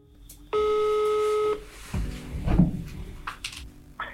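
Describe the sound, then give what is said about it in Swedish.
A single steady electronic telephone ringback tone lasting about a second as a call is placed to a police lead investigator, followed by soft clicks and a muffled clunk as the line connects to voicemail. “Jag ringer upp spaningsledaren”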